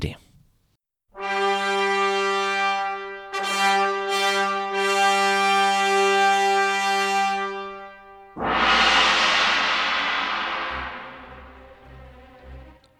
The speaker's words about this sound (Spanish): Pues ahí tenemos esa explosión del gong al comienzo del dies irae de este requiem a la memoria del guillotinado Luis XVI de Francia.